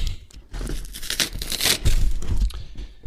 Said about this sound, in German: Mann, ich hasse Pakete aufmachen, ehrlich, man, weil die auch teilweise immer so viel Klebeband da drauf machen, dass du es halt nicht abkriegst.